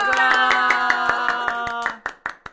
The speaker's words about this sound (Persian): یه کف مرتب براش بزنین با جیغ و کف و هورا و همه چی هورا!